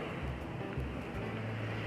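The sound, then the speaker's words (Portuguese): A steady rush of wind blowing outdoors during a walk, with low buffeting gusts thumping against the microphone and no voices, a continuous roar that never lets up. “E hoje o passeio foi curtinho, mas foi bom demais. Cheio de vento, vento no tempo.”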